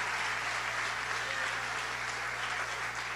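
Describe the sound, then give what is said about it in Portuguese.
Sustained applause from a church audience clapping for Jesus, a dense, steady wash of many hands clapping at once, fairly loud and continuous throughout. “É uma salda de palmas para Jesus.”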